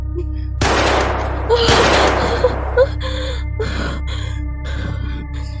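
Two loud, sharp gunshots crack close by, one right after the other, each leaving a noisy echoing tail, followed by several softer, muffled bursts spaced out over a low background hum.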